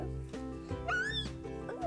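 Two young female cats meow, one with a longer rising-and-falling cry and another shorter mew near the end, heard over a steady low background hum.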